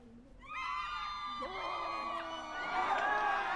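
Several high-pitched voices scream together, overlapping and sustained for a few seconds, swelling louder toward the end like a frightened crowd crying out at once, as everyone rises from their seats in fear.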